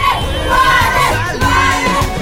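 A crowd of female fans of a Colombian singer shouts and cheers outside the Hotel Sheraton Miramar during the 50th Viña del Mar International Song Festival, a loud, dense, steady wash of many high-pitched voices overlapping, with no single voice standing out.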